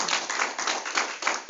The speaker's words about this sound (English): So give God a good hand clap praise for him.